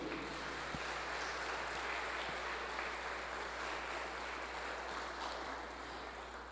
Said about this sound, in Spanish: Le damos un fuerte aplauso a nuestro Señor.